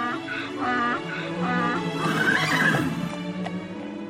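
A horse whinnies in a long, quavering series of high, wavering calls, rising and falling in pitch and fairly loud, with faint hoof clops underneath.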